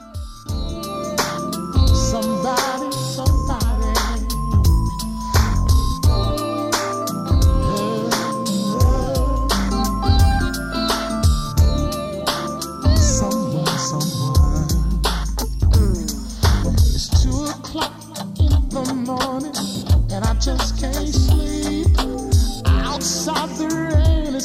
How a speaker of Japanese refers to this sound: 男性シンガーが歌っているバージョンが入っていたんですね